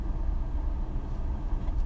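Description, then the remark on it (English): A steady, low rumble of car traffic, heard while stuck in a traffic jam, fills the whole stretch, a continuous engine-and-road drone with no voices and no distinct pass-bys standing out. “I'm kind of stuck in traffic.”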